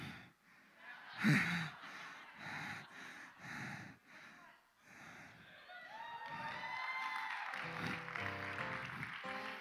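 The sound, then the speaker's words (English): A church audience claps and cheers after being asked to wish a pastor happy birthday, building from scattered bursts with gasps and laughter into steady, dense applause mixed with crowd noise. “Half of you clapped on that because you know she was lying.”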